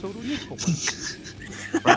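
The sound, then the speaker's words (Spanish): A man's voice mimics a dog, with rough growling followed by a few short, sharp bark-like bursts near the end, moderately loud. “Ah, oh, gruño, gruño, gruño, ah, ah, gruño, gruño, gruño, ¿cachai? Eso es como un ladrido, así como.”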